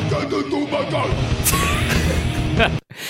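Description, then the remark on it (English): A small squeeze car horn, squeezed by a drummer dressed like a giant space beast while playing drums, gives a short, thin honk amid busy drumming and dense live music in a place that looks like a meeting room, with loud hits crashing around it before the sound cuts off abruptly. “is playing the drums and squeezing a little car horn at opportune moments”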